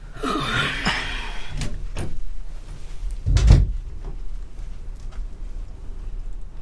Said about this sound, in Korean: 나는 방 안쪽 잠금키를 눌러넣고 문을 닫았다.